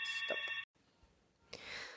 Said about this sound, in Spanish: Están sonando el teléfono. No, ya va. Vamos a pausar.